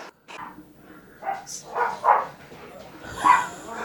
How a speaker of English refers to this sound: Oh, I was gonna say that lady needs to shut her fucking dogs up, but that's your dog.